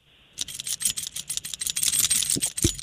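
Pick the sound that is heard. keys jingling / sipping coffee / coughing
keys jingling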